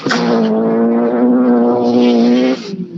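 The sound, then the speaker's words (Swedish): A BMW rally car's loud engine roars, holding a steady high-revving growl for over two seconds before abruptly dropping off, leaving a quieter rumble. “Den låter ju fint ja. den här BMWn.”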